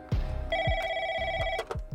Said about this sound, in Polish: W dwa dni po uprowadzeniu chłopca w gabinecie Bolesława Piaseckiego zadzwonił telefon.